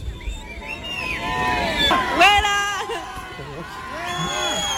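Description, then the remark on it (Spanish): A crowd of tourists at the pyramid of Kukulcán jeers and shouts at a woman over one another, with shrill rising and falling whistles cutting through the noisy babble throughout. “Mientras que el resto de turistas la silban e increpan por ello.”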